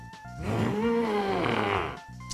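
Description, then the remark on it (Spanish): A single drawn-out, guttural groan lasting nearly two seconds, made by a human voice imitating an alien being tortured. It is loud and rasping, with no talking over it. “pues esa sí suena más como a un tipo alien, güey, que lo están torturando, güey, nada más así.”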